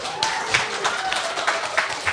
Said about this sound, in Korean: 박수로 대답해 주시죠.